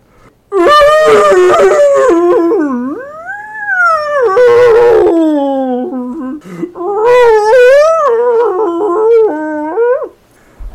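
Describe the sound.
A whale cries out as it is caught by a larger whale, long, loud, wavering wails rising and falling in pitch, several drawn-out moaning calls running together for about ten seconds with no talking.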